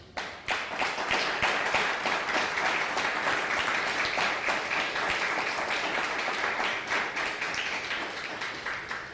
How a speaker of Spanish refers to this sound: Bienvenidos todos nuevamente, un fuerte aplauso.